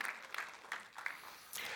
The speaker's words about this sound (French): Je sais qu'on n'est pas, tu as le droit d'applaudir, vas-y, gêne-toi pas.